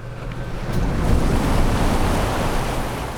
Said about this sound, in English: There was nothing but silence at first Silence and waves washing tiny rocks to shore, still steaming from the red hot boulder.